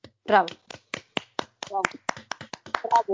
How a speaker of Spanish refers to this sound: Eso, se merecen un aplauso las K-Popers.